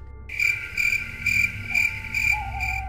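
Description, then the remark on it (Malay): Crickets chirp steadily at night at a quiet village cemetery, a bright pulsing trill repeating about every half second, clear over a low background hum with no voices. “Masa tu pun kata Abang Padil, kalau terdengar pun cuma bunyi cengkerik aje.”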